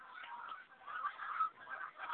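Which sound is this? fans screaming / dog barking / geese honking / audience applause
geese honking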